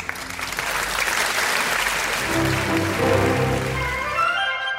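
Audience applause opening the Eesti Kontsert radio programme Aplaus on Kuku Raadio, a dense steady patter of many hands clapping, joined about halfway through by sustained tonal music that continues under the clapping to the end.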